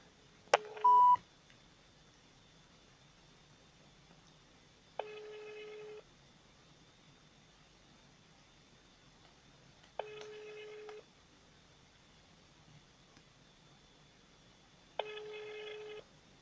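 A quick burst of telephone dialing tones while calling the Vesti Altai radio phone line, then a ringback tone sounding three times, each ring about a second long with roughly four seconds of quiet between, clear over faint line hiss.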